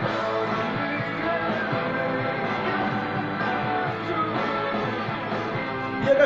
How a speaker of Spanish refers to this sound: se nota algo que quizás en los discos de … anterior no estuvo tan presente y es esos teclados, esos Hammonds de fondo